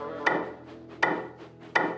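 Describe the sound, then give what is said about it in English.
Three soft, evenly spaced taps on wood, each a short knock with a brief hollow ring that fades before the next. Quiet overall, with no voices. “Not long into his journey, there was a faint tap, tap, tapping.”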